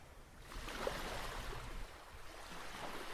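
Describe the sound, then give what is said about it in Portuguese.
A steady wash of water surrounding the setting, a soft continuous rush like a stream or gentle surf, heard alone with no voices and no clear breaks. “e por aquela que nos rodeia neste ambiente. A água.”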